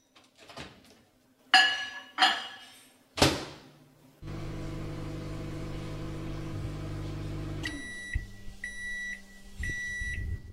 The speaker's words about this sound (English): Okay, if you look at it now, it's just kind of like a really chalky dough, and we're gonna microwave it. It's almost like a non-Newtonian fluid here. Okay, popping it in.